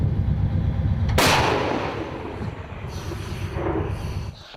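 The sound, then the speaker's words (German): A single tremendously loud artillery blast from a German-made self-propelled howitzer near Bakhmut cracks out over a low rumbling engine, then rolls away in a long, echoing boom across open ground. “Seit Sommer haben sie hier eine Panzerhaubitze aus Deutschland im Einsatz.”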